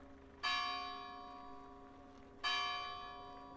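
Two slow, resonant church bell strikes about two seconds apart, each ringing out with a long shimmering decay, heard alone in the churchyard of the village of Pinhascoso, in Mação.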